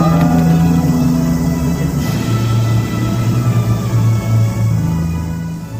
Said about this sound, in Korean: 네, 애국가 소리가 울려 퍼지고 있네요.